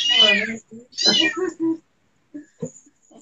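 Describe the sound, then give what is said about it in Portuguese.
A very small kitten meows several times in quick succession, high-pitched, with a couple of longer cries followed by softer, shorter mews after a brief pause. “Que tio gatinho. Nasceram e estão aqui.”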